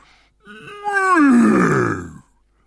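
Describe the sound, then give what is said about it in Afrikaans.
A narrator telling a story imitates the roar of Leo the lion with one loud, drawn-out growling cry that starts fairly high and slides steadily downward in pitch before cutting off, lasting nearly two seconds. “Brul Leo”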